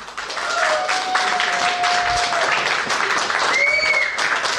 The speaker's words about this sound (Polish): Dziś naszym gościem jest Krzysztof Gąciarz. Witam Cię, Krzyśku, bardzo serdecznie i od razu poproszę o brawa.